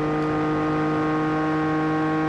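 The engine of the number 67 Ford race car driven by Andy Priaulx holds a steady, buzzing, high-revving note for a couple of seconds, loud and continuous with no voices over it, as it changes down gears slowing for turn 14, the hairpin at the end of the long straight.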